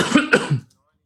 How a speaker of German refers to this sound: Lustig, dass ich jetzt huste.